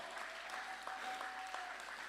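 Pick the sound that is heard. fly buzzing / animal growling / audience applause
audience applause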